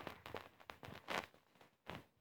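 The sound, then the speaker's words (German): Quiet, rhythmic footsteps from a video game character, a run of soft crunching steps that pauses briefly before one final step, with no voices present. “Schritte”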